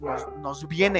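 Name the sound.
dog barking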